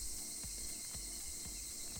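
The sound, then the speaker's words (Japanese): Cicadas drone loudly and steadily outdoors at the Live Forest Fest outdoor festival in Akigawa, Tama, Tokyo, on Saturday, August 1, the day the end of the Kanto rainy season was announced, in a continuous high buzz, with soft low thumps pulsing about twice a second underneath and no talking. “えー、今日は8月1日土曜日関東地方ではですね今日梅雨明けが発表されましたでさっきからすごいセミの音とかこう自然の音が聞こえてきてるかと思うんですけど”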